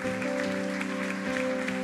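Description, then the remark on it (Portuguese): An audience claps steadily in praise of the Lord, with a dense wash of applause running throughout over sustained keyboard or organ chords. No one speaks. “Então, se você quer chegar no final, quer aplaudir, aplaude o Senhor.”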